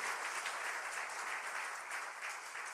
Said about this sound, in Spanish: Si usted lo cree, déle el mejor aplauso al Señor.